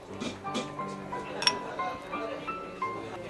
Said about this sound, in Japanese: 久しぶりに飲んだ馴染みの居酒屋ビールで乾杯